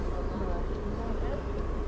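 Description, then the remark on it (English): A bus engine idles with a steady, low rumbling drone, with a faint airy hiss above it from the air conditioning, as the bus sits still with its door shut about five minutes before departure. “The door is now shut. The engine is on. The air conditioning's cut in.”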